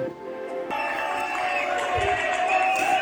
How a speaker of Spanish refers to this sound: Todos los animales lo aplaudían con euforia.